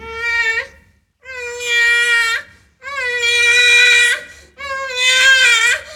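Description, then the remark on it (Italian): A baby cries in four loud, drawn-out wails separated by short breaths, each rising and straining at the end, with no one speaking. “Ascoltate il bambino.”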